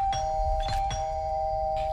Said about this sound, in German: Er klingelte nochmal an der Haustür.